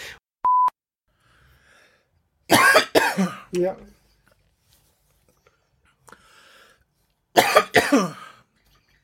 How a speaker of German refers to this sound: Entschuldigung. No, wer hustet da durch, durch, Nacht und Wind?